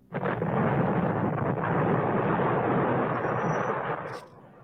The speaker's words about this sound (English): On March 6, 1970, as the Weatherman Group on West 11th Street put the final touches on the bomb, there was a short circuit in the wiring, and the device accidentally exploded.